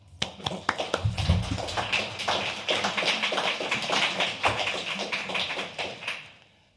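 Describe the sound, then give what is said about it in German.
An audience breaks into applause for the participants of a working group, a dense steady patter of many hands clapping that swells quickly and holds for several seconds before tapering off at the end. “Und das ist ein Beifall wert.”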